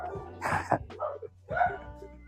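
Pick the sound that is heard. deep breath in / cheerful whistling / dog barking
dog barking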